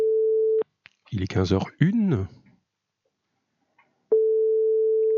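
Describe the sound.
A steady, single-pitched ringback tone from an outgoing phone call sounds twice, separated by a long pause, while a voice briefly speaks in the gap between the rings.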